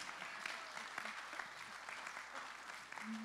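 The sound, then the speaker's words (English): A church crowd claps steadily for a few seconds for the youth leaders, the dense patter of many hands holding an even, moderately loud level throughout. “Can we have a round of applause for the leaders who are here every Sunday?”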